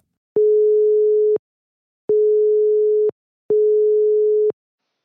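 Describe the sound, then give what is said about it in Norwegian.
A telephone ringback tone on an outgoing call: three steady, one-second electronic tones separated by short pauses, clear and prominent, with no voices. “Altså, det er en fyr som kan ganske mye om, seg, om dette her, så jeg, vi tror vi bare tar oss og uh, eh, plenger på uh, til han.”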